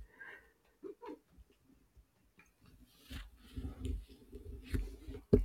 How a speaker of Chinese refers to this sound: 插播，插播那个阿晴家的猫正在旁边呼噜的声音。